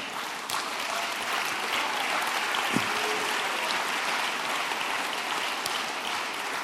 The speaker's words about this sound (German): Wow, cool. Cool. Ja, man darf schon klatschen.